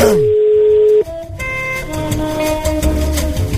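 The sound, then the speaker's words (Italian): A telephone tone sounds: a steady electronic beep for about a second, followed by a bright, melodic ringtone-like jingle that plays on fairly loudly, with no voices. “Così il bambino piange, però se non prendete il telefono, eh?”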